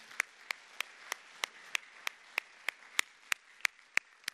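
Applause given as a round of applause for the people who smoked meat for the group, made of crisp, evenly spaced claps, about fourteen in just over four seconds, keeping a steady beat at moderate loudness with no voices over them.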